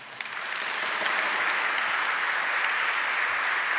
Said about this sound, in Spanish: Pensé que le iban a dar un aplauso al Señor.